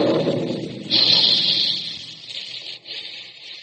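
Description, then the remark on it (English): A low rumble gives way to the sudden blast of a big Quaker cereal puffing gun firing, as used to shoot puffed wheat and puffed rice, releasing a loud rush of hissing steam that lingers and slowly tapers off. “Remember the sound of those big Quaker guns the next time you sit down to a tempting dish of crisp, crunchy puffed wheat or puffed rice for breakfast.”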